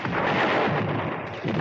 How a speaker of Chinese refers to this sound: 波洛苏辛上校的口令声刚落，大地倏然间抖动了一下， 接着就听到空中传来了一阵狂风般的怪叫，同时，只见空中一条条火龙带着尖啸，急速的向德军的坦克集群砸了下去。